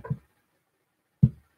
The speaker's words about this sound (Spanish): ¿Escuchan eso? Es como si golpearan la puerta. Voy a ver, voy a ver qué, qué está sucediendo. ¿Están golpeando la puerta?